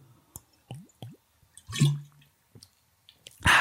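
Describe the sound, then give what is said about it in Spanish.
Exaggerated, wet gulping swallows: a few short liquid clicks and squishy glugs in an uneven rhythm, building to a louder, fuller gulp at the end, with no talking. “trago dramático.”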